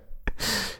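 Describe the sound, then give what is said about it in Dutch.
A single sneeze: a brief sharp catch of breath followed by a loud, hissing, breathy burst that fades out within a second, with no talking. “Ja, ja, Gezondheid.”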